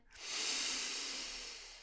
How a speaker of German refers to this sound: Komm, wir atmen nochmal alle gemeinsam tief ein.